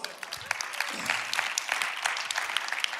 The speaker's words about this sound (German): Darum vielen Dank, dass wir wieder von der Bühne gehen. So, Applaus.